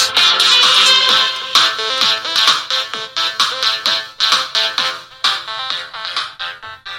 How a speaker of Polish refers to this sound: I tak właśnie brzmi Penfriend emitując muzykę z pliku MP3.